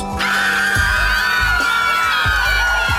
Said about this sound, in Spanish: Escuchen esos gritos. A pesar de los años, los vampiros seguimos inspirando terror.